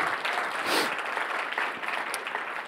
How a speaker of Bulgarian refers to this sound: О, въобще не очаквах да ръкопляскате на това.